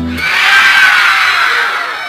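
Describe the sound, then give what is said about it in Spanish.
Several people scream together in an abandoned house on a dark night, a loud, sustained, high-pitched wail that rises quickly and holds for about two seconds, intense with no talking. “Se oían gritos.”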